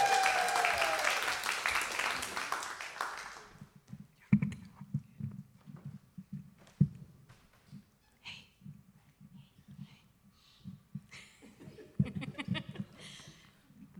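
A crowd claps and cheers in a dense burst of applause lasting a few seconds, then it fades to scattered low murmurs, shuffling and a few isolated claps.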